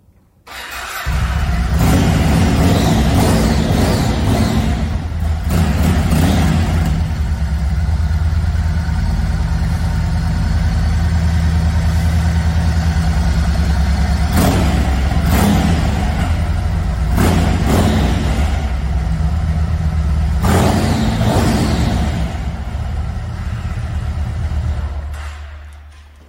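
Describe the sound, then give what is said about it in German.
A motorcycle engine rumbles steadily at idle, loud, with several sharp revs surging up and dropping back at irregular intervals. No voices are heard. “Und ich weiß nicht, wie es dir geht, aber ich habe Tränen in den Augen, wenn ich den Motor höre, weil ich weiß, nicht ich habe mir das ausgesucht.”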